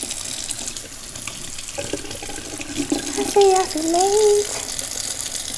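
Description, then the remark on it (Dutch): Steady running tap water splashes over strawberries in a colander as they are rinsed, with light knocks and a brief voice murmuring partway through. “Ik ga even aardbeien wassen.”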